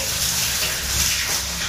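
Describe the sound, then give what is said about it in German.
Shower water runs in a shower cabin in a steady, continuous rushing hiss, broad and even in loudness for the whole moment, with no voices and no breaks in the spray. “Jetzt ist das Duschen beendet.”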